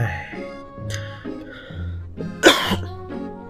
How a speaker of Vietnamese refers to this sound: … nhẹ nhàng ho ra